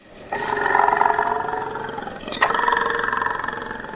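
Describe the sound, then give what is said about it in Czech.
A Caucasian bison (wisent) roars in the deep forests of Svaneti, a deep, sustained bellow with a second surge partway through, loud, no voices present. “Pokud se za vámi v hlubokých lesích ve Svanety ozve tenhle zvuk, kavkazský bizon, není to dobré, ale tohle monstrum nakonec pravděpodobně nezautočí.”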